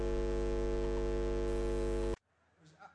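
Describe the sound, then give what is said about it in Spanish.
A guitar amplifier warming up at a live concert hums loudly and steadily with a buzzy, harmonic-rich drone for about two seconds, then cuts off abruptly, leaving near silence and a faint murmur. “Aquí a, a mi izquierda tenemos un amplificador calentándose para, ¿para qué?”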